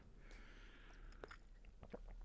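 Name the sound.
sipping coffee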